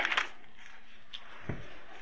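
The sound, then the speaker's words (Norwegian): Soft papery rustling of pages being turned to chapter 36 of the Book of Job, a brief flurry at the start and another quick flick a moment later, quiet, with no one speaking. “Vi blar til kapittel 36.”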